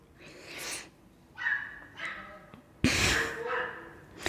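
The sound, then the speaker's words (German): A dog yelps outside in a series of shrill, pained cries, five or six sharp bursts with short gaps between them, moderately quiet, the last cries loudest. “was ist denn da draußen Hoppla. los? Was ist da jemand Schläfer? auf einen Hund getreten?”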